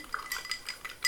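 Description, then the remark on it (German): Light metallic clinks of cutlery or glass tapping together, several quick bright taps in an irregular rhythm, fairly quiet, with no talking. “Ja, wir sündigen. Ihr hört es, wir klingeln.”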